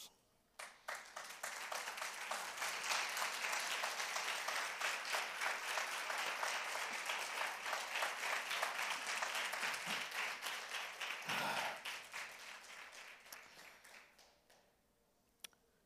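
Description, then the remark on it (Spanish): An audience at an evening service applauds to tell the Lord they want more than facts, for about thirteen seconds, dense overlapping claps holding steady and loud before tapering off into quiet near the end, with no voices heard. “Y mire, quiero saber si hay alguien en esta noche que se atrevería eh, con su aplauso decirle al Señor, quiero más que datos.”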